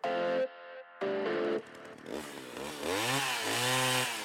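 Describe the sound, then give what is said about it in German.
A chainsaw engine buzzes in two short bursts, then revs steadily with its pitch swooping up and down, fairly loud, heard in the background, with no voices. “Oh ja, sorry, kurz an dieser Stelle, falls ihr diesen Lärm im Hintergrund hört, es müsste Jens Lehmann sein.”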